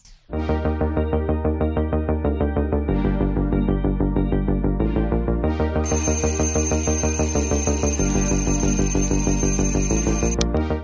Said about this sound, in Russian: Звенит будильник.